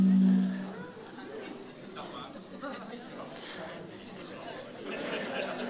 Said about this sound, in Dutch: Ik hoor iemand eh, de naam van zijn vrouw roepen.